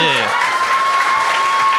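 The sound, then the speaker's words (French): A loud burst of audience applause, dense steady clapping filling the whole clip, with a brief voice at the very start. “Hey, applaudis!”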